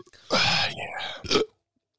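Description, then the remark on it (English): A long, loud belch rumbles for about a second, then a shorter second burp follows, with no talking around it. “Oh man, belching a plenty uh. tonight, pal.”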